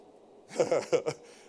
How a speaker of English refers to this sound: I hope that was not a lady honking the horn.